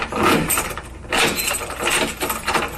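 Keys jingle and rattle up close as a door is locked, a busy metallic clatter lasting a few seconds with a brief pause midway.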